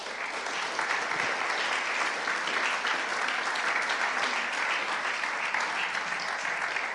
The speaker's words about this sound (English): if you give him a big round of applause.